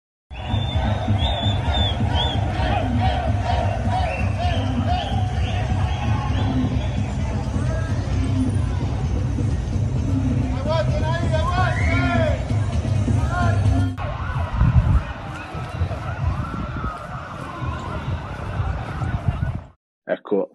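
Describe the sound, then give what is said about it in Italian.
A loud street demonstration in the streets of Montevideo: a dense crowd of voices shouting and chanting continuously, with shrill rising tones cutting through near the middle before the noise thins slightly and then stops abruptly. “Sì, mi hanno bannato dall'Assemblea Generale, è vero, però sono riuscito a infilarmi in una manifestazione per le strade di Montevideo.”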